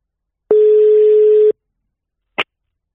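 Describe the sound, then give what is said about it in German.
A single one-second ringback tone, a steady electronic beep heard while a phone call to an editor-in-chief connects, followed by a sharp click about a second later as the line is picked up. No voices. “Ähm, äh, da rufen wir jetzt einfach mal unseren Chefredakteur an”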